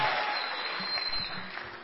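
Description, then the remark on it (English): An audience breaks into steady applause, a dense, continuous wash of many hands clapping at once that holds fairly loud and even throughout, with no voices standing out. “Oh, I thought you were going to clap.”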